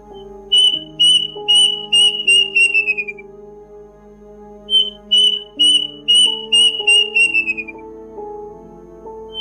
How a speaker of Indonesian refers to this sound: Jadi yang yang suaranya kayak gini loh. Bentar kita cari di YouTube dulu burung kendasi. Nah, ini ada nih. Nah, jadi suaranya kayak gini, guys.